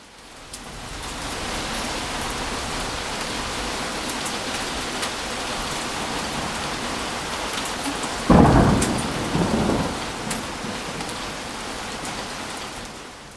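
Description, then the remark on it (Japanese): Hail pours down in a dense, steady clatter throughout, recorded through an opened window with ice flying into the room, on October 30. About two-thirds of the way in, a loud rumble of thunder rolls over it before fading. “ちょっと窓を開けてみたら、氷がね、部屋の中まで飛び込んできて、かなりね、えー、激しい氷が降ってました。そのね、えー、音ね、ちょっと収録してみたので、どうですかね聞こえますかねちょっと背景に入れてみました。”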